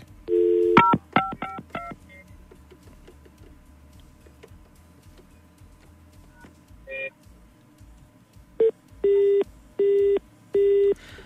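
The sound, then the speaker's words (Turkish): A burst of quick dialing beeps, a pause with faint hiss, then an odd chirp followed by four evenly spaced, loud electronic tones. It is an unfamiliar telephone signal heard when calling a number again and the call does not go through, rather than a normal ring or busy tone. “Çalar açılmaz biliriz ama hiç alışıkla gelmemiş bir e, sinyal duyuyoruz.”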